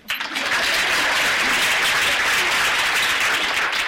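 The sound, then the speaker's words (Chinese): An audience bursts into applause, a dense, steady wash of many hands clapping that starts abruptly and holds at a loud, even level throughout, with no voices over it. “此处可以有掌声。”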